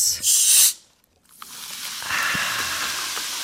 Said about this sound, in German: dann wisst ihr, es geht um schöne Getränke. Und äh, was sorgt für dieses schöne Zischen und Prickeln bei uns im Mund, auf der Zunge? Selbstverständlich die Kohlensäure.